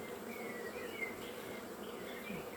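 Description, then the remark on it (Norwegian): A steady, dense hum of many honeybees buzzing together around the hive, continuous, with shifting higher drone tones weaving over a low warm drone. “Og så ser du òg det at når dronningen kommer, så flytter alle andre bier seg.”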